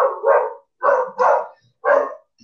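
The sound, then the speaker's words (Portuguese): A dog barks loudly, a quick run of four or five sharp barks spaced about a third of a second apart, with no talking over them. “Ai, gente, desculpa meu cachorro.”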